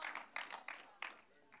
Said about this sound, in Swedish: En tveksam applåd, men jag står för den ändå.